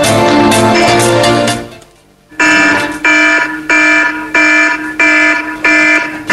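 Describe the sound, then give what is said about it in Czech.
A loud, shrill alarm clock ringtone, used as a morning wake-up alarm, blares in repeated bursts, with a dense electronic tone first, then a brief pause followed by a regular pulsing pattern of bright beeping chimes. “já nevím, jestli můžu jako teda ukázat, nebo spíš pustit posluchačům, co jako jako máš za budík ty. Už jen pokud tohle někoho neprobudí, tak už fakt nevím.”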